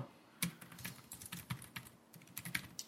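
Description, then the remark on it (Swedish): Rapid, irregular typing on a very small, laptop-style keyboard being tried out, a steady stream of light, crisp key clicks with no voices. “Det känns som ett laptop-tangentbord.”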